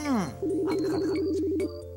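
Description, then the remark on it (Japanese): A quick falling swoop gives way to a steady, warbling electronic telephone tone lasting about a second, like keypad dialing tones, fairly loud, with no talking over it, as a phone is dialed to order food delivery. “今すぐ電話しようやそうしようじゃあねもう頼もう、はい、出前出前早いよと、”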